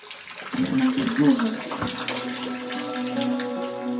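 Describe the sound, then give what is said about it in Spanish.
Glacier meltwater rushes and pours steadily beneath a mass of ice, sounding like waterfalls, a dense continuous splashing roar with a low resonant hum running beneath it, loud throughout. “Entonces la acústica es muy poderosa. Sonaban como cascadas.”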